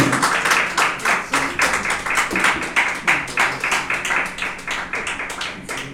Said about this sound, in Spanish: la ofrenda de palmas al Señor, pues, para que se le quite un poco el sueño.